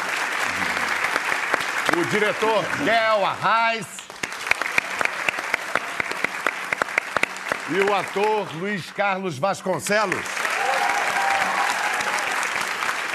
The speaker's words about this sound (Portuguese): o jornalista Gerson Camarote, aplaudam